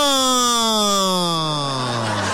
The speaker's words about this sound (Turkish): Böyle geldi ses. Tamam blender tamam. çalışıyor. Buzlara atıyorsun tamam. ama buzu böyle şey e, normal buz olarak atıyorsun. Bu bunun köpürmesini sağlayacak.